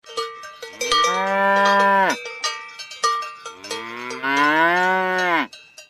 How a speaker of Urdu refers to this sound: دیکھو سامنے سے گائے آ رہی ہے